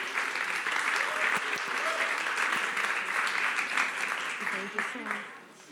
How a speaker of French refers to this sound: on les applaudit. Merci, beaucoup.